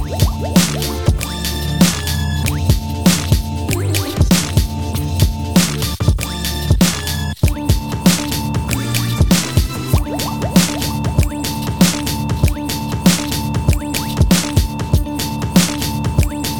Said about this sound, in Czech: Přichází podvodník, slyšíš to bublání?